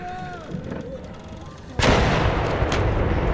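A single distant cannon shot, the first one, booms out far behind a sailing ship midway through a quiet, faintly humming background, its heavy report rolling on as a broad, sustained rumble until the end.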